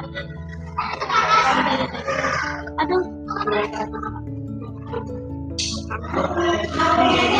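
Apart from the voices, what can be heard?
tiger roaring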